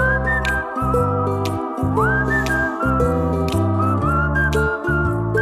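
A whistled melody with sustained notes and an upward slide rides over a steady, bass-heavy instrumental backing, loud and continuous throughout with no talking.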